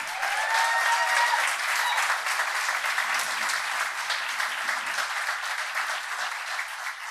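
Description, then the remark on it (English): An audience claps and cheers for everyone who contributed to the work, in a steady, dense wash of applause lasting several seconds, with a few sharp whistles rising over it at the start, then holding strong before easing slightly. “So, for everybody who has contributed to this, can we just take a moment, clap our hands, cheer for them?”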